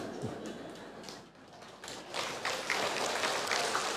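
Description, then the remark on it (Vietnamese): An audience breaks into applause, the clapping starting scattered and swelling into a dense, steady patter of many hands that carries on loudly to the end. “Nghe thịt bò nướng mừng quá vỗ tay.”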